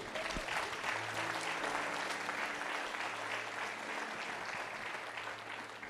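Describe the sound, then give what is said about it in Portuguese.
An audience claps steadily for the Lord Jesus for several seconds, a dense wash of many hands at an even loudness, with a low hum running underneath. “Aplaude ele, aplaude.”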